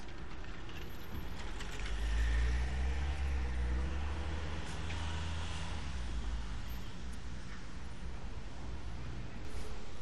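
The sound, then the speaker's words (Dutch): Steady roar of busy street traffic with cars and buses at a busy crossing on the Janskerkhof square, with many bicycles, a deep engine rumble swelling briefly as a heavy vehicle passes, with no talking. “Het is altijd een eh, druk punt hier. Veel fietsen, veel bussen, veel auto's.”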